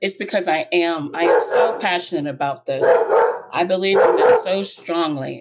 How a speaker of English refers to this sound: And that is my dog. He believes in it too.